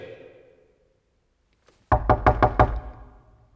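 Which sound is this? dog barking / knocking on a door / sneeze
knocking on a door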